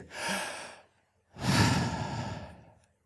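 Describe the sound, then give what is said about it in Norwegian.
A crowd draws a long, deep breath in unison on a count of three, then lets it out in a broad, rushing exhale; two swelling waves of collective breathing with no talk, as an audience does a deep-breathing exercise together. “Så tar vi, på tre så tar vi og puster skikkelig så godt dypust.”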